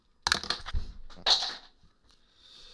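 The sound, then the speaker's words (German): A pen drops and clatters, a quick burst of sharp little knocks followed by a brighter rattle a moment later, then quiet hiss. No one speaks. “Das war mein Stift.”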